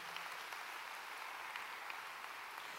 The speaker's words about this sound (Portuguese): Pode aplaudir a você mesma.